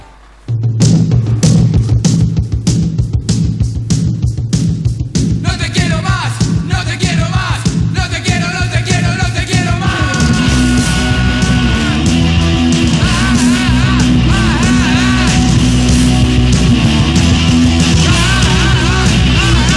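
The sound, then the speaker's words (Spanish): Loud, driving punk rock with pounding drums and distorted guitars. Raw, shouted vocals come in and grow denser, roaring over the band for the rest of the song. “Y unos gritos de perro muy punk rock 88.”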